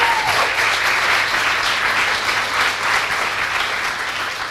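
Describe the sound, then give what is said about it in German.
An audience at an education centre applauds steadily for the people who guide visitors through its digital learning lab. A dense wash of many hands claps at an even loudness throughout, with no voices standing out. “Ja, großen Applaus nochmal an der Stelle.”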